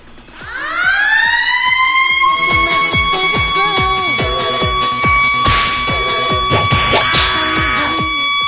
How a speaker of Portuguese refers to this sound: Sirene da escola.